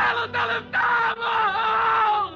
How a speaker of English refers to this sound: Because out in front on the sidewalk lay what once had been a man. Look at him. Both his hands are blown off at the wrists. One leg's in shreds. His of shrapnel's ripped open his stomach. Yet he screams. Not just screams, he screams words.